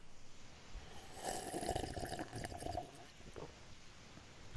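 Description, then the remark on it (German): Water sloshes and swirls around inside a glass for a couple of seconds, a gurgling, rushing sound that swells in the middle and then fades, with no one speaking. “Ich mache kurz mal Strom im Wasserglas.”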